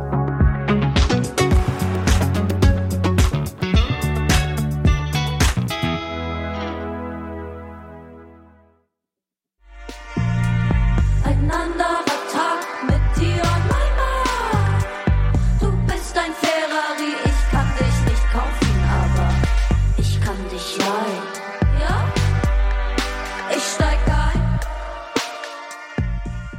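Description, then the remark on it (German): A German pop song about love plays loud and full, with layered instruments; it drops out briefly, then comes back with a punchy, steady bass-driven beat. “Ob jetzt das Auto, wie hier im Song … oder wie in anderen Liedern Bilder aus der Tierwelt, Metaphern benutzt … gern.”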